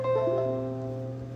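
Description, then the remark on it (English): A computer's USB-device-not-recognized chime: a brief electronic tone with a few quick pitch steps at the start, then a steady sustained hum that holds at moderate volume with no voices. “it's the sound of a USB not being recognized.”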